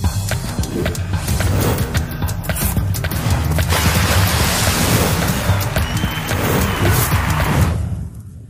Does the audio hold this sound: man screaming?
no